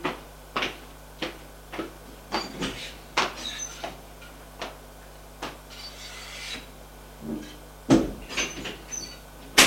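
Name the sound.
door being opened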